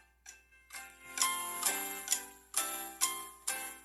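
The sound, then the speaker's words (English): Jeopardy game-show think music plays behind a 30-second timer: a bright, tinkling melody of evenly spaced, bell-like notes in a steady ticking rhythm, with no one talking. “Okay, so I'll I'll just I have a 30 second timer pulled up with Jeopardy music behind it.”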